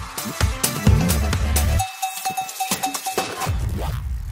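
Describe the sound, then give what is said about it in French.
A short radio jingle plays on its own: bright bell-like tones over a busy low rhythm, then a sustained high note with quick percussive taps before the music picks back up. “Jingle.”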